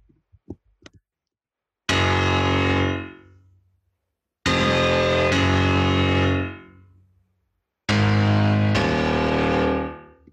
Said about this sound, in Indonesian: Uh, gue dari dulu pengen banget punya bunyi piano kayak gini sih. Piano di distorsi anjur gitu